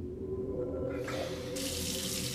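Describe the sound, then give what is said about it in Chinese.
Water runs steadily from someone showering, heard coming from the toilet room: a soft hiss that swells partway through and turns brighter and fuller toward the end, over a constant low rumble. No voices. “又比如说， 厕所里突然传来了有人洗澡的声音。”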